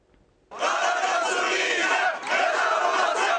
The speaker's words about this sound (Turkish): Binalar bize mezar olacak diyen gençler var orada. Protesto yaptılar bugün.